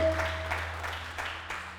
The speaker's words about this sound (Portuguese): Você pode dar um aplauso a ele?